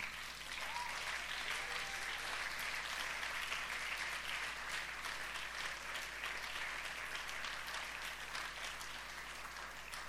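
Steady, dense applause from an audience fills the whole stretch, a continuous wash of clapping hands at fairly even loudness with no voices standing out.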